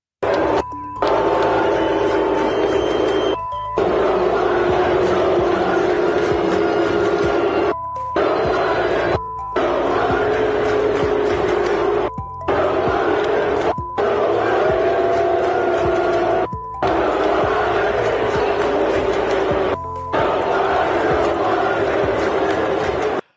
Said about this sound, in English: But they put her up on the Megatron, and the Eagles fans, this is them booing, and see if you can make out what they're saying.